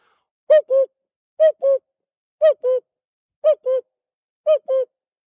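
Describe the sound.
A person imitates a cuckoo call, whistling or hooting five clear two-note calls repeated at a steady pace about a second apart, with nothing else around them.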